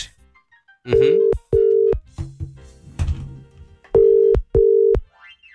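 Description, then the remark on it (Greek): A phone ringback tone from a call placed on a Monday morning at 7:33 sounds in two pairs of loud, steady electronic beeps separated by a pause, with faint background noise and thuds in between, and nobody picks up. “Δεν του σηκώνει κανένα το τηλέφωνο.”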